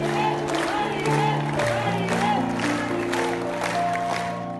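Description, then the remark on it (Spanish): An audience and co-workers applaud and cheer steadily as they welcome Maribel Guardia back to the stage, with bursts of clapping and shouting over sustained musical tones underneath, loud and continuous for the whole stretch. “público y los compañeros de trabajo de Maribel Guardia la recibieron de vuelta al escenario con aplausos y ovaciones que por supuesto la hicieron llorar.”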